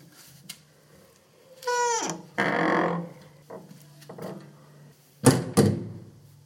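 A heavy spring-loaded castle door creaks with a rising, drawn-out squeal as the spring swings it, followed by scraping and soft knocks, then it lands shut on its own with a loud thud near the end.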